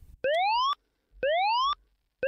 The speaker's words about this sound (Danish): Der er alarm, og det betyder, at der er konkurrence.